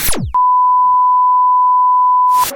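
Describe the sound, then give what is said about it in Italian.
A single steady, high electronic tone holds unbroken for about two seconds, like a heart monitor flatlining, loud, after a quick falling sweep and ending in a short burst of noise. “Per un attimo l'elettrocardiogamma tutto. me era parso piatto.”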